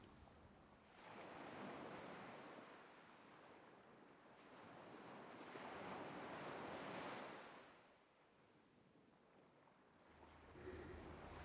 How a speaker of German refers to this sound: kannst das Meer rauschen hören. Nicht weit entfernt ist ein Strand.